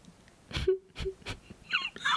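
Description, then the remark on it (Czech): A girl cries bitterly, with a few breathy sobbing gasps followed by higher, rising wailing cries, heard on its own without talk. “se dala do hořkého pláče.”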